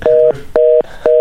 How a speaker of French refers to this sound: Ce qu'on entend, là, ça, c'est le téléphone.